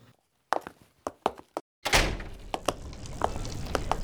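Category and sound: household object, door closing and locking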